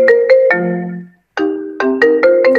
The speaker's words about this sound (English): Our gym phone rings on every Apple device. Like it'll ring on the uh, iPad.